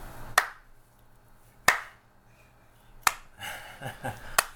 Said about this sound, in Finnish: se oli niin leipääntynyt siihen, että siinä oli joku kohtaus, missä piti taputtaa, niin siitäkin teki tälleen.